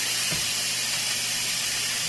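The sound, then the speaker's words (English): A steady, broad hiss of steam venting from a pressure cooker valve opened all the way to relieve the pressure, continuous and fairly loud, with no talking over it. “Gotta relieve the pressure until absolutely no more steam comes out.”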